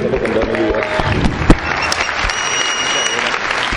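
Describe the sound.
A crowd applauds a man as his parents hand him the keys to his car, dense clapping filling the whole stretch at an even, fairly loud level, with a brief sharper clap standing out partway through and faint voices mixed underneath.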